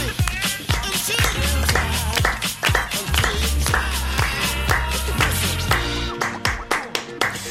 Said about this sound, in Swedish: jo, bara om ni klappar med såklart.